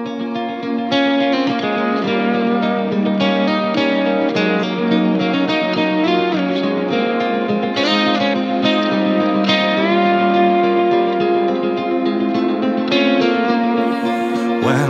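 A ska band's cover of a song from the Netflix series The Witcher plays loudly and steadily, with a dense full-band sound of layered instruments and a bouncing, continuous rhythm throughout.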